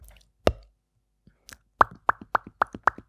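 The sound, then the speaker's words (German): Thumping plosive pops made into a headset microphone to test it: one loud pop, a short pause, then a quick, steady run of about eight more breathy pops, with no talking. “Ich fühle mir mal ein paar Sprenglaute.”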